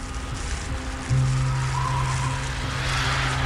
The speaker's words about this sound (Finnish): Kuuleks mä oikein? Onks toi moottorikelka ääni? No juman kautta on tietenkin.